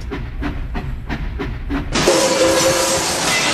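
The Eat Your Spanish train rumbles with a steady clickety-clack rhythm, then a loud, sustained hiss of steam bursts out and continues to the end.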